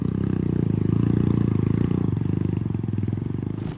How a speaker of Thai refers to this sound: สภาพการเดินทางที่ต้องขี่จักรยานยนต์ลุยโคลน